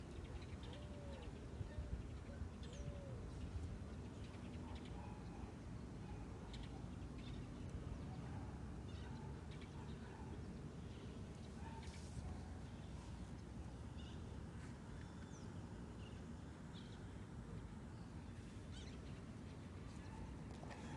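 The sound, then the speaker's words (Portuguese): Birds chirp and call across Parque do Sabiá, a city park, scattered, over a steady wash of outdoor background noise, with a few faint murmured voices mixed in. “Vamos capturar um pouco do som local, os pássaros do Parque do Sabiá, para nosso nossa audiência tá conhecendo.”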